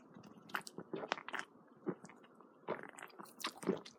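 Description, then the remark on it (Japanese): Crunchy chewing of a snack, with irregular bursts of crisp bites and mouth sounds coming in quick clusters over a few seconds, with nobody talking. “この時間、セミの声が聞こえてきますけど、セミの声を聞きながら、いただきます”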